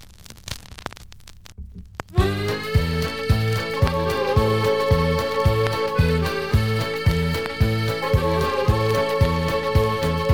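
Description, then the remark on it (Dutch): A vinyl record crackles and pops on its own for about two seconds, then music starts with a steady, even beat and sustained tones, with no voices. “Nou, ik, eh, ik ga de plaat opstaan. Ja, hij kraakt een beetje, zoals ik al zei.”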